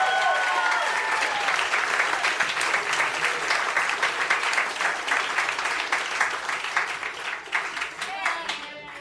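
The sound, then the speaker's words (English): Sustained audience applause for Dan Harmon as he takes the stage to read from his book, dense rapid clapping from many hands at a steady loud level, with a few faint whoops near the start and end before it gradually thins. “Let him hear it.”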